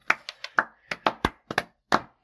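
hand clapping

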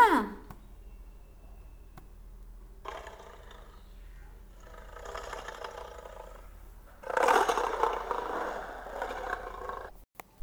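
lion roaring

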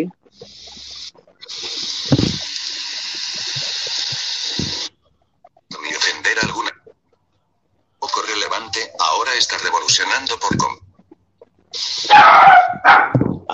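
dog barking

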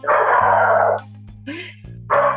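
small dogs barking

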